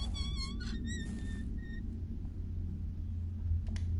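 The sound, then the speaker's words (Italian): An oiled mine cart is pushed along rails in a mine, rolling with a steady low rumble, its wheels giving off several high, wavering metallic squeals at the start before settling into a continuous grinding roll. “e arriviamo qui in cui dobbiamo muovere questa il carrello, questo carrello della miniera. Ci mettiamo un po' d'olio, lo spostiamo”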